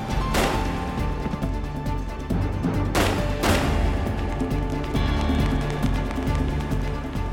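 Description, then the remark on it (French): Three sharp gunshots crack out in an apartment building, one alone and then a quick pair about half a second apart, ringing over a steady, tense musical drone with no talking. “Les coups de feu attirèrent l'attention d'un des résidents de l'immeuble qui accourut pour voir de quoi il s'agissait.”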